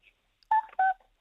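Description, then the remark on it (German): Two short, very high, pure-toned sung notes from a child, the second slightly lower than the first, loud, with silence around them. “Oh, die singt da so ganz hoch, gell?”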